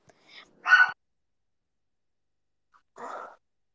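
A dog lets out two short, gruff barks while playing, spaced a couple of seconds apart with quiet in between. The barks are moderately loud, with no one talking.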